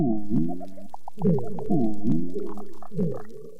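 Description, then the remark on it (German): A low, moaning foghorn-like call of unknown origin repeats in several drawn-out, wavering blasts underwater on a coral reef in Indonesia, with faint clicks and crackles of underwater life in the background. “Wer dieses geheimnisvolle Nebelhorngeräusch macht, das weiß bisher niemand.”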